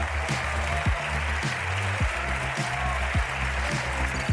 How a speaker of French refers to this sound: L'image du jour, c'est une assemblée nationale en plein brouhaha.